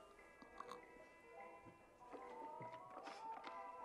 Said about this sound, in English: For now, I'm just going to chew on these grapes.